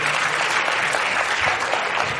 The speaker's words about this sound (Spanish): Muchas gracias. Un fuerte aplauso para ellas. Muchísimas gracias.